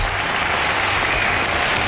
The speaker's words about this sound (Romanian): Încă o dată aplauze.